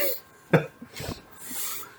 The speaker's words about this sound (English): Sorry if you hear random coughing in the background.